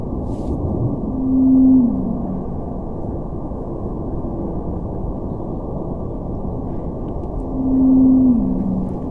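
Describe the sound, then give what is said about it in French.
Two drawn-out tonal whale calls, each a steady low hum that steps down slightly in pitch, spaced several seconds apart over a constant band of underwater noise. “là, on vient d'entendre deux vocalises de ballettes Bleu Antarctique.”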